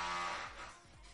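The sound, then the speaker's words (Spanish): A power drill whines steadily as someone drills, its motor pitch dipping in a few quick drops as it revs and slows. No one speaks. “Bueno, estáis escuchando, alguien está taladrando un trompo, no sé dónde, pero bueno.”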